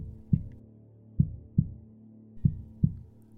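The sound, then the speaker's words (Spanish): A deep, muffled heartbeat thumps in paired beats, steady, with a low hum underneath and no voices. “A su vez, la velocidad de cada latido simboliza la frecuencia con la que una persona realiza algún tipo de actividad física.”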